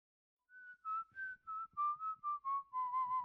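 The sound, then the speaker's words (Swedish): A short, off-key whistled tune of about ten wavering notes, drifting slightly downward in pitch, whistled by a man watering the garden, with no one talking. “När han hörde Malte vissla falskt reste han sig ur soffan och störtade ut.”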